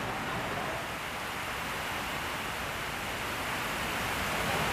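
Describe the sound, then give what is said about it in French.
Heavy rain pours down in French Guiana in a dense, unbroken roar, steady and loud for the whole stretch with no voices or pauses, like a downpour hammering surfaces. “C'est la pluie là qui est en train de tomber si fort.”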